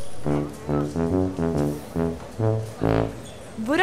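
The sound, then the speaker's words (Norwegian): A tuba plays a quick run of short, low, buzzy notes, one after another in a bouncy rhythm, with a longer held note near the end. It is fairly loud, with no talking. “Og hvorfor spiller den lyder uten at det er noen der? Har de festa tubaen til en hund?”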